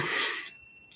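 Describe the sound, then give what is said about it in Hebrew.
A single sharp, breathy sneeze bursts out, a loud hiss of air that cuts off abruptly, followed by near quiet. “לבריאות.”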